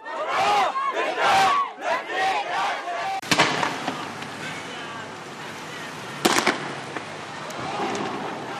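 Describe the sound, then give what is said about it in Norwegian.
Hundreds of people in a protest procession behind a coffin, in a small island state in the Persian Gulf, shout rhythmic slogans in unison, loud, with the chanting fading into a dense roar of voices punctuated by two sharp bangs. “Hundrevis av frammøtte roper slagord.”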